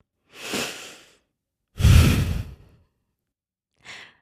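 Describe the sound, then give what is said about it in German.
Slow, relaxed breathing in and out through the nose: a soft airy inhale, then a fuller, sigh-like exhale, and a brief final breath. No one speaks. “Wir atmen nochmal gemeinsam entspannt durch die Nase ein und aus.”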